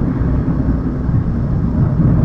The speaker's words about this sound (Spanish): algún ruido diferente, es porque el coche es diferente. la verdad es que hoy no es el mejor día para, hacer la grabación del, podcast, ya que como el coche es nuevo y tal, estoy más pendiente de los, de los ruidos que va haciendo y todo